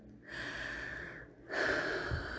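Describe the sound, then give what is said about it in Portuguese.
A deep breath drawn in as a guided breath before a Gospel reading, followed after a brief pause by a longer, slightly louder exhale, both airy and noisy with no talking. “Tome uma respiração profunda.”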